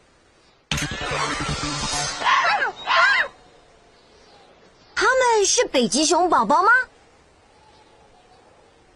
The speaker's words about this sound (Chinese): No，他们是北极狐。Let's keep looking。